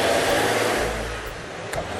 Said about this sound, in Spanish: camiones. dos camiones. Son camiones de la policía. Camiones antimotines. No sé qué hacen por acá.